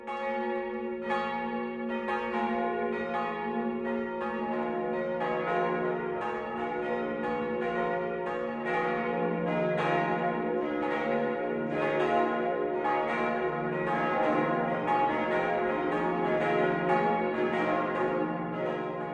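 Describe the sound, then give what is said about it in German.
The five bells of the parish church of St. Bartholomäus in Volkach, Lower Franconia, Germany, ring together in a full, continuous noon peal at 12 o'clock, overlapping strikes sustaining a rich resonant wash at steady loudness throughout, with no voices. “Das Mittagsläuten kommt heute von der Pfarrkirche St. Bartholomäus im unterfränkischen Volkach.”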